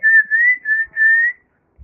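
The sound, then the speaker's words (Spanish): A short bird-like whistled tune in four smooth, connected phrases at a steady high pitch, heard alone without talking, followed by a brief pause and a soft low thump. “Ella cantaba como un pajarito.”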